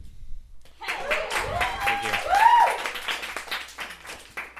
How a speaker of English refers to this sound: I just I've never felt an applause break before, and I really wanted to know what it was like.